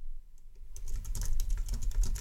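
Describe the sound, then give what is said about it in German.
Rapid, steady typing on a computer keyboard, a dense run of crisp key clicks that begins after a brief quiet moment and continues to the end, with no voices. “In eine davon tippe ich jetzt, wenn sie den Jingle jingeln.”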